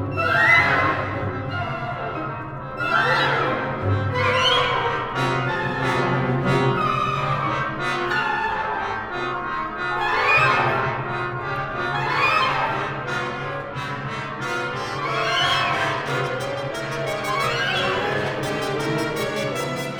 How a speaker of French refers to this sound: donc on entend euh, un groupe de trombones avec sourdine. Ils sont en deuxième plan, malgré le fait que euh, c'est eux qui, tiennent la phrase. Et là, l'importance est vraiment de choisir une bonne sourdine qui ne sort pas du contexte euh, orchestral